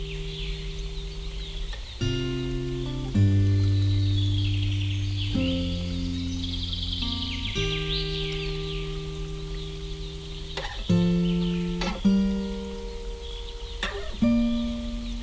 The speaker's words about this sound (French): Mais je dirais que les oiseaux n'y étaient pas d'origine. Les oiseaux sont dans la chanson. Ils sont d'origine, d'accord. Les oiseaux sont d'origine.